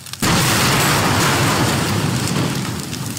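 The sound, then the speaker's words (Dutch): A loud roaring fire sound effect in a virtual reality fire training set in an office, with smoke, bursts in abruptly and keeps going, a dense crackling rush of noise that stays close and steady for a few seconds with no voices. “Je staat in een kantooromgeving, er is brand, er is rook. Je ziet en hoort wat er gebeurt.”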